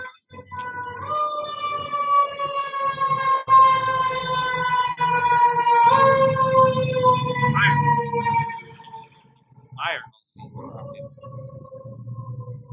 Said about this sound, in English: That there's a fire engine going by because the Lakers are gonna be on fire all season.